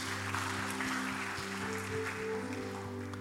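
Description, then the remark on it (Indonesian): An audience claps steadily in a dense, continuous wash of applause given for Jesus, with sustained keyboard chords holding underneath throughout. “Berikan tepuk tangan buat Tuhan Yesus.”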